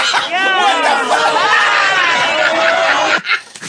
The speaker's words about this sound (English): And then they all just start booing him.